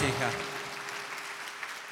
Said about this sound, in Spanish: ¡Wow! Dele fuerte ese aplauso a Jesucristo.